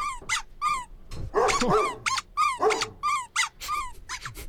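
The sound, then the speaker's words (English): A dog sound effect plays: repeated high-pitched yelps and whimpering squeals mixed with a few sharper barks, coming in quick bursts over several seconds. No one speaks. “Oh, no, get that dog. There's the one for the dogs.”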